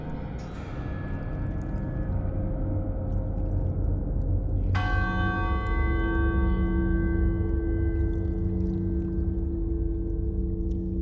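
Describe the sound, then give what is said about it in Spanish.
A church bell tolls for the dead, two heavy, slow strikes about four seconds apart, each ringing out in a long, shimmering decay over a low, steady rumble. “campanas que tocan a difunto.”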